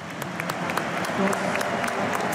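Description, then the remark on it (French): A large crowd at the Vélodrome, most supporters standing, applauds steadily as OM's Dimitri Payet leaves the pitch, substituted by Vitinha; thousands of hands clap in a dense, continuous wash with sharp crackling claps poking through, holding a fairly even loudness throughout. “Et les applaudissements du vélodrome euh, debout euh, pour, la plupart euh, des, supporters.”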